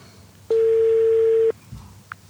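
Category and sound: signal or alarm, telephone ringing tone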